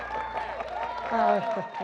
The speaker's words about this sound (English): So I just want everybody to give them a great big blessing and clap and turn around and turn around. You can clap for turn them.